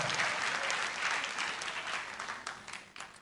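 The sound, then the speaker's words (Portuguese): A church audience applauds the Lord Jesus, a dense wash of many hands clapping steadily throughout, loud at first and gradually tapering off toward the end, with a few sharper claps standing out. “Você pode aplaudir ao Senhor Jesus por isso.”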